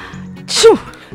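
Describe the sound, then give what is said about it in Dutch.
A single fairly loud sneeze: a sharp, hissy burst that drops into a short voiced tail, standing alone against a faint background hum. “Gezondheid. Gezondheid?”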